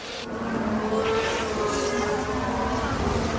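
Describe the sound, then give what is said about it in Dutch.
Max Verstappen's Red Bull Formula 1 car pulls off to the side of the track with a technical problem at the Australian Grand Prix on 10 April 2022; its engine drones steadily at a fairly constant pitch, hollow-sounding, with no voices over it. “Gaat de auto van Verstappen aan de kant.”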